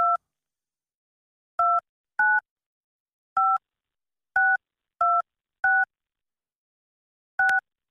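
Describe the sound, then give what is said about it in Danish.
A series of eight short dual-pitched telephone keypad beeps as a telephone number is entered on a voicemail system, each tone crisp, spaced irregularly with brief silences between presses. “Men tast telefonnummer efterfuldt af firkant”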